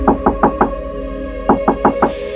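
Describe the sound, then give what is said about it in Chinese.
Two quick bursts of four firm knocks on a hotel room door, separated by a short pause, over a low steady hum. “当他准备上床时，敲门声又响了。”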